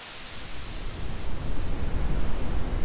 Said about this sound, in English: White noise is like static on a TV when your antenna is busted. It's a big range of frequencies of equal intensity. It helps to block sudden ambient noises that might disturb your sleep, but the higher frequencies are a tad harsh.